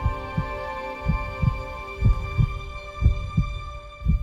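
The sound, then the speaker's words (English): A slow, deep heartbeat pulses in steady lub-dub pairs, about one beat per second, layered over a sustained synthetic hum of held tones, a heartbeat-style sonic logo for a car brand. “Full marks, of course, if you did recognise all those variations on the old heartbeat cliche, all of them from the last six years.”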